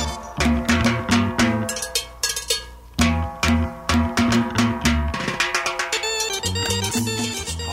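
Upbeat organ music plays on its own, bright sustained chords over a bouncing bass line and sharp, regular percussive hits that keep a steady danceable beat throughout.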